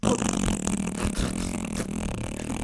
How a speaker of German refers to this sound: Dass jetzt noch der Pups kommt.